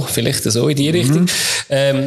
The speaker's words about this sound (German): Gesundheit.